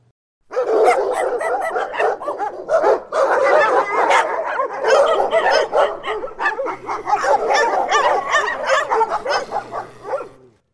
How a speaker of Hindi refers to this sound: यह सवाल पूछने पर कुत्तों की भोंकने की आवाज बढ़ गई